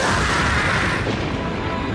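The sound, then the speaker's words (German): A loud, sustained thunder crash from a lightning strike in a heavy thunderstorm rumbles heavily for about two seconds, with dense low-frequency roar and a bright crackling edge, no voices present. “Als er aber die Stelle passierte, an der er den Teufelspacht besiegelt hatte, zog ein heftiges Gewitter auf und ein mächtiger Blitz erschlug den Prunksüchtigen.”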